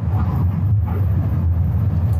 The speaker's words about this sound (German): Leichte Linkskurve. Jawohl. Da kommt ein Auto entgegen.